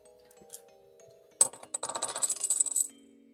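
Dice clatter onto a hard surface during a tabletop role-playing game, after a sharp first impact, rattling in a quick flurry of bright clicks for about a second and a half before settling. Faint tones hum underneath; no one speaks.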